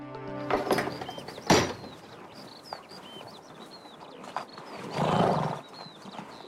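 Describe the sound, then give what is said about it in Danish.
A horse whinnies loudly at the start, followed by scattered clip-clopping hoofbeats, while small birds chirp steadily in the background. “Jeg er ikke specielt glad for heste.”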